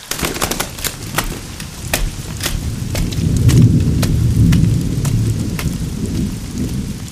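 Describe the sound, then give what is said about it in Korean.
Steady rain patters throughout, with sharp crackling drips and a deep rumble of thunder swelling in the middle before easing off. No one speaks. “남자는 휙 돌아서서 빗속으로 총총히 사라졌다.”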